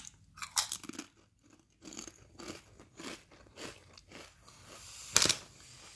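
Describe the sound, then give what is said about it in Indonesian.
Crisp crunching and chewing of Citato potato chips eaten at 11 p.m., a steady run of crackly bites with one sharp, loud crunch near the end, no talking. “ini podcast sambil makan citato Jadi mungkin kalau ada suara kayak ASMR-ASMR gitu Ya wajar lah ya Ini udah jam 11 malam nih lapar banget gue”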